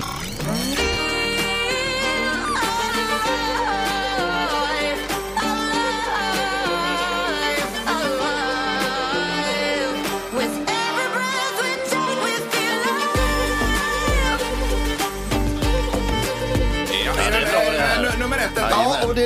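A rhythmic pop song plays loud and close, with a sung lead vocal over steady bass, layered synths and a driving beat that continues throughout without pause.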